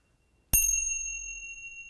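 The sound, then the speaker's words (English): Meditation cymbals are struck once after a moment of silence, giving a bright, clear metallic ring that lingers and slowly fades. No one speaks. “these are actually meditation cymbals”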